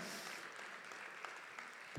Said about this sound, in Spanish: de un aplauso al Señor.